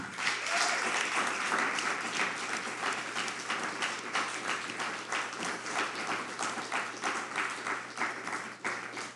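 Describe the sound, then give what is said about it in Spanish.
A crowd applauds Hashem steadily for about nine seconds, a dense, loud wash of many hands clapping at once with no pauses and no voices. “Dale un fuerte aplauso a Hashem.”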